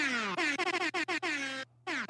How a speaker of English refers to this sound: Should we give Ollie the super air horn?